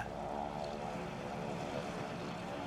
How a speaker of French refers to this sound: L'avion survole d'abord la ligne méditerranéenne jusqu'au canal de Suez.